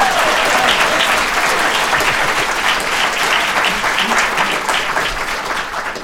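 audience applause

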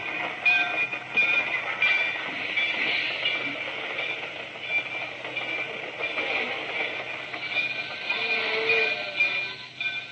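train running on rails

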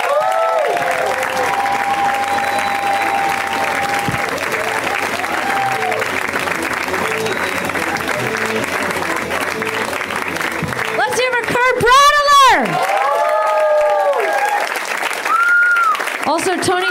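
audience applause and cheering

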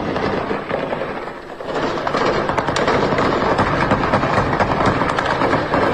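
gunfire

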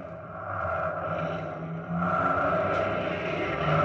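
cars driving away

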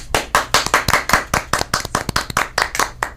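clapping applause

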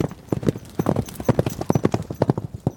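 pony hooves clip-clopping

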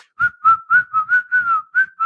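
person whistling

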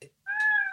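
cat meowing

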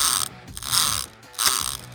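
ratchet wrench clicking

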